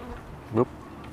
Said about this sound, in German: Ah, jetzt das Wespe, sorry.